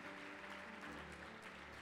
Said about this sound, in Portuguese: Oséias, pode aplaudir o Senhor.